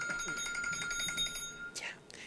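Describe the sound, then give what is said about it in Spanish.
A mobile phone alarm, a reminder to take a migraine pill, rings with a bright, steady electronic melody of repeating high tones under faint background voices, then cuts off into a brief rustling noise. “Tengo el teléfono en los huevos.”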